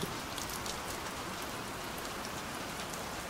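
Steady rain falls continuously at night, a dense, even patter of countless drops hitting a surface, fairly soft, with no voices or other sounds breaking the wash of noise.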